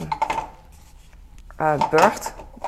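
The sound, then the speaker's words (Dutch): Four light cups clatter and clink together in a few quick knocks, followed by a brief murmur of voice near the end. “Ik heb hier vier bekers. Gisteren waren ze eigenlijk gewassen. Maar ehm, deze bekers zijn zo licht.”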